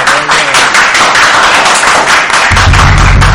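Loud, dense applause from a crowd welcoming a guest into the ring, a steady wash of many hands clapping at once, with a low rumbling thump joining in toward the end.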